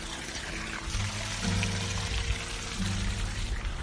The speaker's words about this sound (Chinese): 哎，大家听到我们这边有园丁在浇水，听到水声了吗？